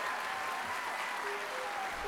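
An audience applauds steadily, a dense wash of many hands clapping at a constant, moderate level with no gaps, and a few faint whistled or cheering tones above it.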